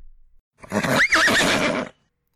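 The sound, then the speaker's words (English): A single loud whinny from a stallion rearing in a wooden starting gate and kicking the gate with its forehooves, its shrill, wavering pitch rising and falling for over a second before cutting off, with no voices around it. “I kicked the gate with my forehooves and yelled at the top of my hoarse lungs.”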